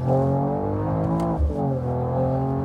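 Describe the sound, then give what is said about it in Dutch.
The new inline-six, 48-volt mild-hybrid engine of a Mercedes-AMG E53 Coupé revs loudly, a rich, steady harmonic growl that dips briefly midway before climbing again, with no voices over it. “Het is een nieuw, nieuw motorblok. Zes in lijn.”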